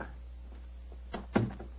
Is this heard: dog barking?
no